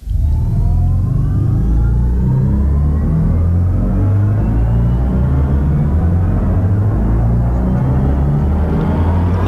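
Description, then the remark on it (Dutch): A synthetic, musical engine tone composed for an electric BMW swells steadily over nine seconds, layered low drones and rising harmonic tones like a futuristic car accelerating, loud and continuous with no talking. “Hij heeft gewoon motorgeluid geproduceerd.”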